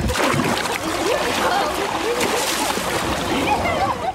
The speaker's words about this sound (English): I'm going to give it another go and dive back in.